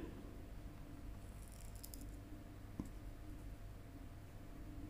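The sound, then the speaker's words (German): A steady, low refrigerator hum drones quietly in the background in the middle of the night, with a faint high chirp and a single soft click partway through. “auch hier wieder im Hintergrund der Kühlschrank.”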